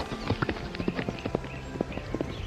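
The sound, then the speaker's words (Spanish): A horse's hooves clip-clop in a brisk, steady rhythm, each hollow knock crisp, with no voices over them. “Un día, el caballo escapó a las montañas.”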